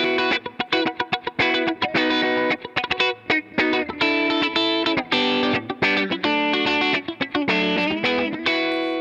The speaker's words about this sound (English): It's worth noting that you're just playing a Gibson Les Paul and going straight into it. Yep. And then straight out of it, and we're just hearing nothing but the pedal. Yeah, absolutely. Yeah. There's no speakers. I'm not moving any air.